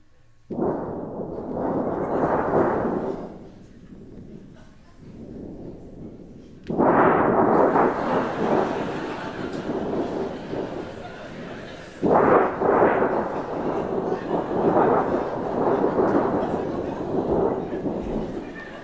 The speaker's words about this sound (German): Das wäre ein Vier-Waldstädter Seegewitter, Wilhelm Tau, kurz bevor das Boot auftaucht.